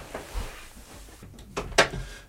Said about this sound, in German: Ähm, und ähm, genau, ich mache mal die Tür zu.